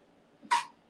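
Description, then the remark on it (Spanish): A single quick sneeze, a brief catch of breath and then a sharp, hissy burst that stops almost at once. It's moderately loud against a quiet background, with no talking. “Salud.”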